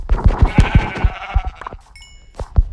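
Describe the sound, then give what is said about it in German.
Sheep bleating in a video game as the player kills the sheep, a wavering, nasal baa stretched over about a second, mixed with a quick run of thumping hits and a few short high chimes, with no talking. “Ich muss schnell die Schafe killen.”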